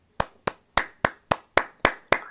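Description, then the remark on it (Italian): Eight sharp hand claps in a steady, evenly spaced rhythm, each a crisp slap with a short decay, clapped live by a single person, the host, with no talking. “Allora, Applauso, guarda, ti faccio gli applausi dal vivo, te li ho fatti io”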